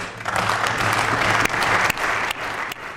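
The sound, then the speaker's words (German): Sustained applause from a large assembly in a parliament, including from the government bench, dense and steady clapping that stays loud throughout with no voices standing out. “Langer Applaus auch von der Regierungsbank.”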